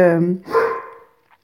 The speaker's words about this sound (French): ah voilà le cri des chiens.